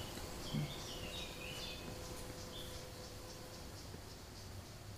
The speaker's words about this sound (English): I'm going to miss these birds.